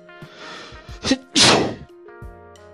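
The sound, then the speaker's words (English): A single loud sneeze: a couple of short catching breaths build up, then one sharp explosive burst, followed by quiet low hum and no talking. “Just sneezed.”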